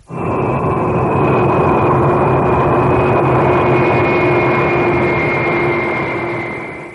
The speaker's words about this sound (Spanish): El gigantesco trueno de los jets, aparte de las serias molestias para los oídos, está cambiando a su paso el clima y la atmósfera terrestre.